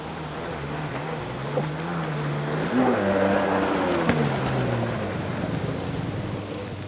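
Jet ski engines whine steadily as a swarm of jet skis maneuvers off a long pier on a rocky shoreline, their pitch rising and falling, over a constant wash of crossing waves and water noise, with no voices.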